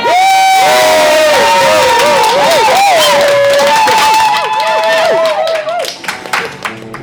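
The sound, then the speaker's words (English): A crowd in Addison 207 at the E Formation 2016 conference at Virginia Theological Seminary cheers loudly and steadily as music picks up, with high whoops and shouts rising and falling above a dense roar of voices and some clapping, then thinning out toward the end. “Okay, the music's gonna pick up in a second, and that's when y'all should cheer, like.”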